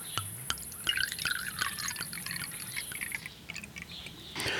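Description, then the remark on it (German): Riesling Spätlese halbtrocken, a Mosel wine, is poured from a screw-cap bottle into a glass in a bubbly, trickling stream with small splashes and clicks, over a faint steady high whine, finishing with a short, fuller rush of liquid. “Ja, einfach aufdrehen und dann kann man eingießen.”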